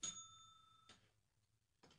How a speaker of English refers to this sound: Are you ringing the bell or were you reaching for it? No, I was ringing the bell.